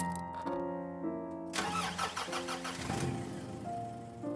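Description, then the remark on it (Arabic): A car engine cranks with a whirring starter for about a second and a half, then catches and roars to life before settling into a steady idle, with no one talking, as the driver gets in the car and puts her foot on the pedals to start a drive. “كل ما بطلع بالسيارة وبحط رجلي على الدعسات مستعدة لأبدأ مشواري”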